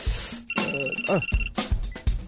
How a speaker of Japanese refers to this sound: あ電話電話電話携帯携帯どこだったかな携帯